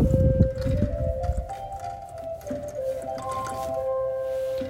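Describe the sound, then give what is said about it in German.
A pipe organ flue pipe, played by an organist, sounds a steady, breathy tone similar to a recorder as air escapes at the pipe's mouth, holding throughout, with a second higher note joining partway, over a low rumbling wind noise and some mechanical clatter at the start. “Das klingt so ein bisschen ähnlich wie eine Blockflöte.”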